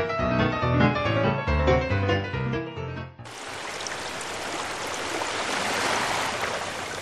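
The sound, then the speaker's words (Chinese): A few seconds of gentle tonal music end abruptly, giving way to a steady, full hiss of flowing river water that rushes on evenly to the end, with no voices. “哦，因为要在河水或是海边那一种流动的活水受洗，才有赦罪的功效啊！”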